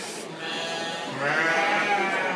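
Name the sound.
sheep bleating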